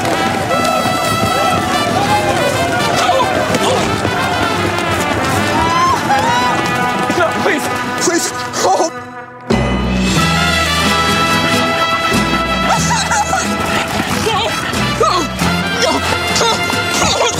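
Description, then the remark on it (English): A loud stampede of running bulldogs in a Geico commercial: a dense, continuous rush of scrambling feet and clattering thumps over a noisy, musical background, cutting out briefly midway before surging back just as loud. “The running of the bull dogs?”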